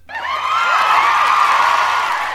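A crowd bursts into applause and cheering for a guest's first appearance, with whoops and shouts rising over the clapping. It starts abruptly and holds steady and loud for a couple of seconds, with no talking.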